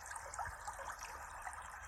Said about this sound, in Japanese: さっきの収録大丈夫かなこのね、いつも後ろに川のせせらぎ音を流しながらやるんですけど、聞こえてたかな